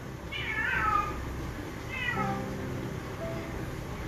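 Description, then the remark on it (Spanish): A cat meows twice, two drawn-out, wavering cries about a second apart, moderately loud over a low background hum, with no one speaking. “ya empezó a ser bulla el gato.”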